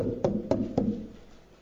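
Three sharp knocks on a block of very old butter, hardened like stone, evenly spaced about a quarter second apart and fairly loud, followed by a short quiet tail with no voices.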